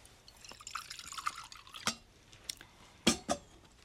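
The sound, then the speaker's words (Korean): Water trickles and splashes for a couple of seconds as it's poured from a kettle into a cup, followed by a few sharp clinks and drips. No one speaks. “주전자 주시죠.”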